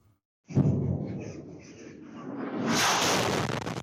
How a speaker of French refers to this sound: Un bruit sourd suivi d'une très forte explosion. Un missile vient de s'écraser sur ce marché très fréquenté de la ville de Kostiantinivka.